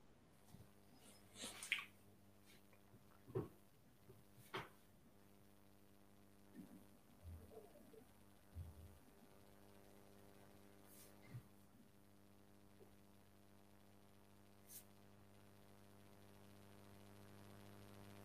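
A call line drops out and goes nearly silent for a long stretch, leaving only a steady low electrical hum and a few faint, scattered clicks, with no voices.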